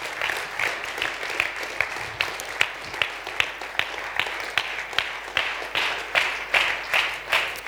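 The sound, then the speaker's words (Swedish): Steady applause from a church audience welcoming a guest forward to help preach, a continuous patter of many hands clapping at moderate loudness with slight pulses in rhythm, no voices over it. “Och nu ska hon få komma fram här och vara lite gäst och hjälpa mig att predika så vi kan väl ge henne en varm applåd här”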